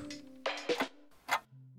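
A clock ticks a few times, a quick tick-tock followed by a single tick, crisp over a low sustained hum, with no one speaking.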